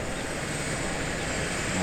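A helicopter based north of Lausanne that drops off patients, lifting off, its engine and rotor noise a dense, steady roar that fills the short clip at constant loudness, with no voices.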